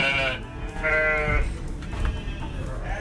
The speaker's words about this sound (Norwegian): Norsk hvit sau heter det vel den sauen som jeg har. Det er veldig stor forskjell på størrelsen på sauerasene.